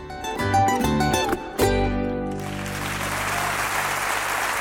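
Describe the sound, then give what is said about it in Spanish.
A musical passage with sustained tones comes to an end and gives way to a steady wash of audience applause, dense and loud, carrying on to the end without any voices. “Pues con este aplauso nos vamos a la isla de Tenerife.”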